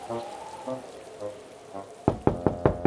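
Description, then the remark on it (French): A faint voice murmurs briefly, then someone raps on the wooden door of a small house in a forest five times in a quick, steady rhythm, each knock sharp and solid. “Ils frappèrent à la porte et une vieille femme vint leur ouvrir.”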